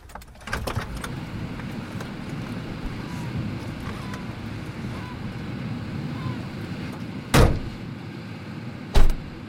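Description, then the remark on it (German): Someone getting out of a car outdoors in warm weather, by a crumbling wall and an apple tree, with steady wind and a surf-like rush throughout, then two sharp car door thuds a couple of seconds apart near the end. “Jetzt steig schon aus.”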